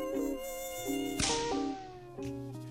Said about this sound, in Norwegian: Det er bare én ting med sommeren som jeg ikke liker. Myggen.